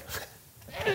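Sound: sneeze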